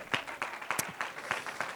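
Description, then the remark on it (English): An audience clapping their hands unto the Lord in a steady, fairly quick rhythm, the sharp crisp claps coming in regular bursts over a soft background of crowd noise. “Would you clap your hands one more time unto the Lord?”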